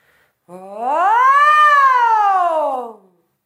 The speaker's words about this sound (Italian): il suono di una sirena, della pulizia per esempio, percorrendo eh, tutte le note del nostro range vocale da quella più bassa a quella più acuta e quindi facendo passare il suono attraverso le tre aree di risonanza, più o meno in questo modo.